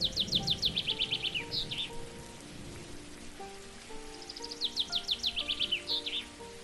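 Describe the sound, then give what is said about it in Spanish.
Young birds chirp desperately on a mountain, calling to one another and searching for their parents, in two rapid, high-pitched bursts of repeated peeps, set against a steady rain-like patter and faint sustained low tones. “Y piaban desesperadamente, llamándose unos a otros, buscando los papás, a las mamás y ambos a sus hijitos”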